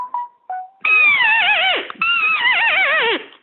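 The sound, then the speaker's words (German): A person imitates the scream of a frightened roe deer, turning the head while calling so that to a roe buck it sounds like a fleeing deer: two loud, drawn-out, wavering cries after a couple of short soft bleats, with a brief pause between the cries and no other talk. “Ist die Dickung aber weiter, weil das Reh, was so erschrocken ist und so schreit, das bewegt sich ja.”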